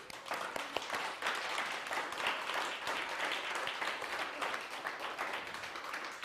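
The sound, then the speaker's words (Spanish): A crowd applauds steadily, many hands clapping in a dense, continuous patter that holds at an even loudness for several seconds without fading. “Así que un fuerte aplauso a todo el mundo, por favor.”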